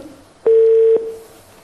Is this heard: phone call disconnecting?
yes